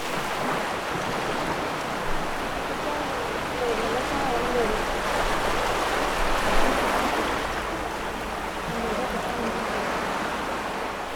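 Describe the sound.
A steady roar of surf washing in on a beach by a seawall at Pranburi, Thailand, rising and falling slightly in broad swells, with faint indistinct voices talking in the background.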